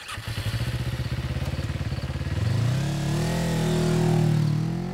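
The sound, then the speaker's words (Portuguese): A motorcycle engine, ridden by a man leaving work, idles with a rapid, chugging pulse, then revs up into a rising, sustained loud roar, with no voices. “Quando saía do trabalho de moto, o rapaz teria visto Brennan saindo de sua garagem a bordo de um Land Rover.”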